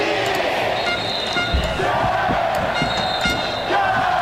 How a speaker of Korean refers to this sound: 마지막 타석에서는 관중 모두가 일어나 이승엽을 연호했습니다.